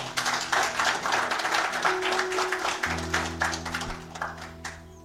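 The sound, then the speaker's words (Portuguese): A church audience applauds Jesus during a sermon, steadily for about five seconds, dense overlapping claps forming a continuous patter, with a sustained low organ-like tone entering partway through and holding underneath. “Vamos aplaudir Jesus por isso?”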